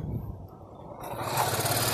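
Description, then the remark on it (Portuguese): A motorcycle passing by: a low engine drone that grows steadily louder and brighter over two seconds, with a rough, buzzing hiss coming in as it approaches. No one speaks. “A moto passando.”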